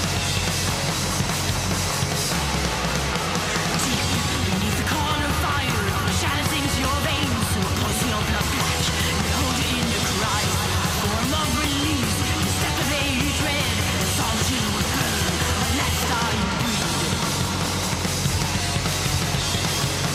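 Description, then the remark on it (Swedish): Dense, loud thrash metal plays steadily throughout, with distorted guitars, pounding drums and a fairly subdued vocal buried in the mix, sounding raw and a bit dated. “Väluppfostrad thrash.”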